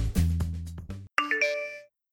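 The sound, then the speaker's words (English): A low, full tone cuts off, then a bright electronic phone text message notification chime plays a quick run of two or three clear notes, moderately loud, with no voices. “Did you just look down at your phone?”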